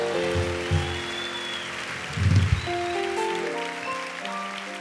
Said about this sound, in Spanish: ¿Alguien puede dar un aplauso fuerte a mi Jesús?